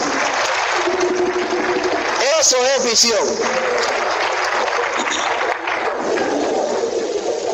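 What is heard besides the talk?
audience applause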